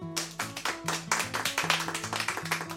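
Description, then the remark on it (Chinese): Brisk, steady clapping, a run of sharp, bright claps at an even pace, layered over low sustained musical notes that shift in pitch underneath. “大家拍手啊！”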